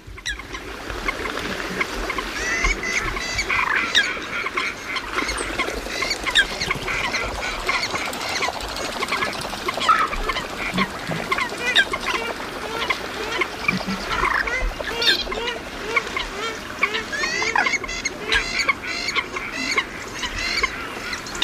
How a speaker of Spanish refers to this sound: aquí escuchamos los trompeteos de las gallinetas, los estornudos de las fochas y unos gruñidos muy peculiares de los calamones